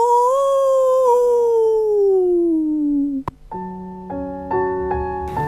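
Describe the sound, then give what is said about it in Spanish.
A long, loud werewolf howl glides slowly downward for about three seconds, then cuts off at a sharp click, followed by a few stepped, sustained musical tones. “El hombre lobo. ¡Aú!”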